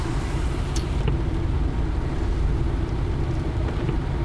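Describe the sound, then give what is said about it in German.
A steady, heavy rumble of a car driving uphill on the autobahn, with continuous low engine and road noise and a faint wind hiss throughout; nobody speaks. “Und es geht bergauf. Eieieiei. Mach 85.”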